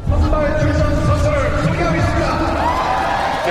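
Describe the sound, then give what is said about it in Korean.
A large crowd murmurs and buzzes steadily, a dense babble of many voices with scattered whoops and cheers rising through a constant, loud roar of chatter, at Jamsil Baseball Stadium on opening day of the 2015 pro baseball season. “제가 지금 나와 있는 곳은 잠실 야구장입니다.”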